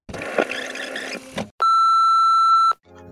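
answering machine beep

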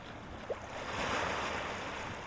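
ocean waves and surf

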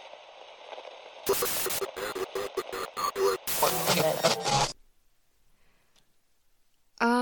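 radio static interference

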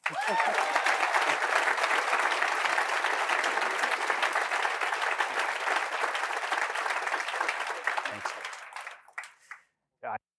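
audience applause

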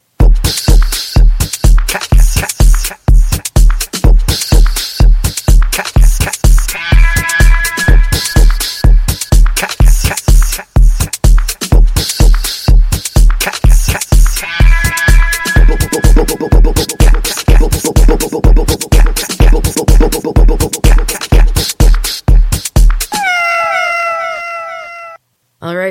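outro music

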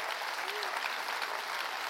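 audience clapping hands

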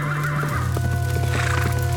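horse neighing

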